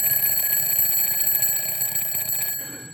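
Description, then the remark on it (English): A mechanical wind-up alarm clock bell rings continuously, a loud, rapid metallic clatter with bright high overtones, cutting off abruptly near the end and leaving a faint trailing rattle. “The clock I had like this was a wind up clock, a mechanical clock.”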